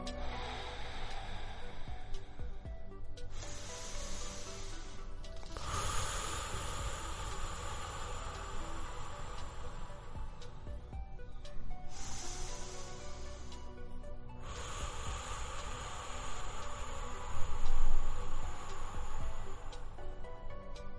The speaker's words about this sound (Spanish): Entonces hagamos una pausa y en esa pausa tenemos que hacer una respiración profunda